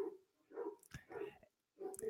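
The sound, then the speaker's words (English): A dog outside barks four times in quick succession, each bark short and evenly spaced, fairly clear and moderately loud with no one talking. “And I also like to apologize if you're hearing any barking in the background. That's either one of my dogs outside being a knucklehead or it's a movie being watched in another room.”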